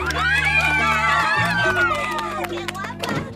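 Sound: audience applause and cheering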